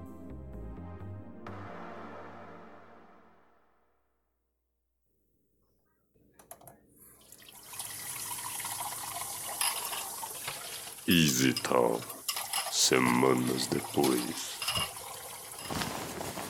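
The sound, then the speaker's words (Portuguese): Soft music fades to silence, then water runs steadily from a tap while dishes clink and clatter, with a voice speaking briefly over the washing. “Quer uma ajuda com a louça?”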